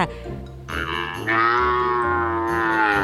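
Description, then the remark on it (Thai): A cow moos in one long, loud, drawn-out call that swells and holds steady for a few seconds, with no talking. “และสัตว์ที่มีจมูกที่ดมกลิ่นได้ดีเป็นอันดับ 3 รองจากหนูก็คือ วัวค่ะ”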